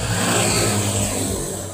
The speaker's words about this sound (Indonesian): Aduh, macetnya kayak begini ya. Di mana-mana berlalu lalang mobil dengan plat dari luar kota.